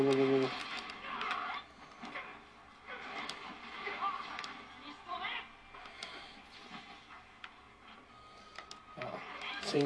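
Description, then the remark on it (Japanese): Rapid, rattling video game gunfire from piercing rounds, a steady stream of sharp mechanical bursts running through the whole stretch, with a voice talking over it. “ああやっぱ気持ちいいですねこの貫通弾最高ですねああやめられない止められないッパーえびせんですねこれはもう貫通弾のこの音がいいですよババババババババババババババ”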